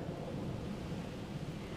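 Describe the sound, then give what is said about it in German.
A steady low rumble of thunder rolls through a thunderstorm under a darkening sky with strengthening wind, with a continuous dense wash of rain or wind noise filling the background at moderate, even loudness. “Der Sturm ist jetzt fast über dir, aber du selbst bist ganz ruhig, ganz sicher”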